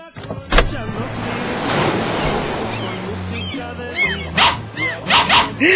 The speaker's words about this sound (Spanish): ¡Ay, qué bonito perrito! ¡Ay, perrito, no me vayas a morder!